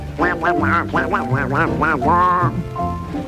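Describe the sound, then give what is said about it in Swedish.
The nasal cartoon voice of Donald Duck (Kalle Anka) cackles in a rapid run of quacking laughs during a Swedish song, about eight loud bursts, ending in a stretched squawk with soft music underneath. “Det är Kalle Anka som sjunger glatt I dansen så hör vi hans glada skratt”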